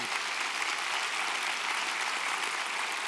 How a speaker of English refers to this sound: So if you have prayed, are praying, you're committing to pray for him, could you just clap so Kurt could hear? He's remembered and he's being lifted up.